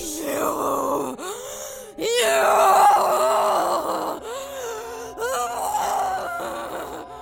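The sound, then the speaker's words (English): Loud moaning from an angry woman with tears in her eyes and a bright red face, tearful and strained, comes in several long surges separated by short breaks, with heavy, agitated breathing running through it and no words spoken. “She can hardly talk, she's breathing so hard, but I can tell she's mad at me.”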